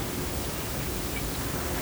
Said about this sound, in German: Ich habe das typische Grundrauschen gehabt, das, das ich nicht hm. sehr gut nachmachen kann.